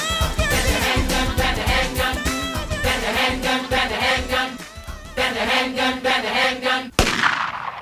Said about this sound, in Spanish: Y la segunda bala.